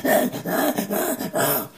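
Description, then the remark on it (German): A voice imitates two hedgehogs growling as they fight over a large piece of flatbread: four rough, throaty grumbling bursts in quick rhythmic succession, fairly loud, with no words spoken. “Und Igel machen wirklich sehr merkwürdige, brummige Geräusche, wenn die dann mal loslegen.”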